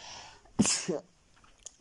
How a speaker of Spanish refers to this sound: Puedes estornudar.